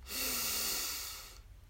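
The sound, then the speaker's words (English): A single deep, airy inhale lasting just over a second, fairly loud, then cutting off into near-silence as the breath is held, during a guided group meditation with hands placed over the eyes. “Let's take a deep breath in together, hold and release.”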